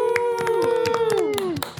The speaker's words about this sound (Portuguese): Gente, uma salva de palmas